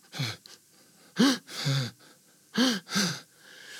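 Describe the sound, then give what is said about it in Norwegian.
A voice demonstrates breathing out, in a series of short, breathy, partly voiced exhales grouped in uneven pairs, fairly loud, with brief silences between them. “Og jeg så at bare da med å koble inn en utpust mm. og forlenge utpust, for da blir ofte utpusten sånn,”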